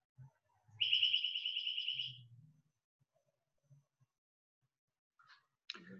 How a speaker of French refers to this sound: J'attends que le, petit oiseau qui indique les 19h ait fini de, chanter.